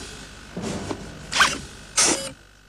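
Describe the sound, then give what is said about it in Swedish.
Automatic shoelaces tighten in three short mechanical bursts, a whirring, ratcheting buzz that grows a little louder with each pull, with brief pauses between and no voices. “Och hur svårt ska det vara att få automatiserade skosnören?”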